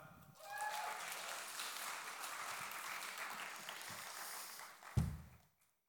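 A crowd breaks into steady applause, a dense patter of many hands clapping for about five seconds, ending with a sharp thump before it quickly dies away.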